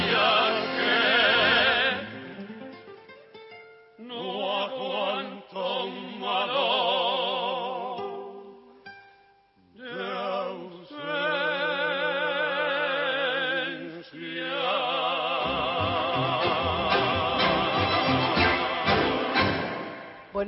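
A malambo tune played by a tango orchestra, full and dense with sustained melodic lines over a driving rhythm. It is loud, with brief pauses between phrases, on a thin, old-sounding recording.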